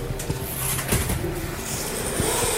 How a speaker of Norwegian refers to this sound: Er det dør til lastebilverkstedet der, eller? Ja, var det dør der? Ja.